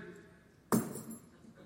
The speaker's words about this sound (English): Don't fall, keys. I believe you, key.